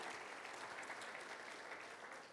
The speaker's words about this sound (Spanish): Si un aplauso a Dios por la vida de él.